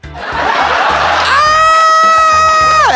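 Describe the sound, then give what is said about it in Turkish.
A man lets out a loud, exaggerated panicked scream, starting as a rough, breathy shriek and then rising into a long, piercing held note that breaks off abruptly. “Yani acil yardım hattında çalışsam mesela biri arasa 8. kattan düştüm kan kaybediyorum dese önce çığlık atarım.”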